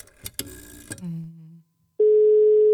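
telephone ringing tone

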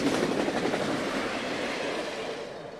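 train sound effect

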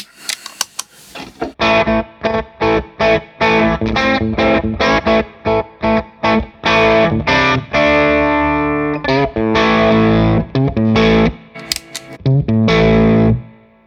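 guitar through overdrive pedal

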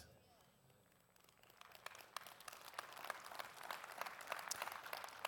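smattering of applause

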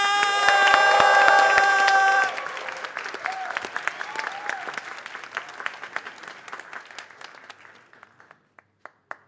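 audience applause welcoming comedian

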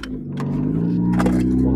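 car engine revving

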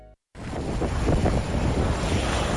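howling winter storm wind

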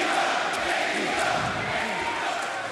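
wrestling arena crowd cheering

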